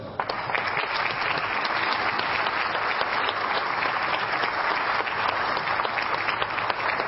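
Sustained audience applause at a tournament for Emilio Orejas, deputy for Sports and Youth, and for all who have supported the tournament for 25 years: a dense, steady clatter of many hands clapping at even loudness for several seconds, with no voices rising above it.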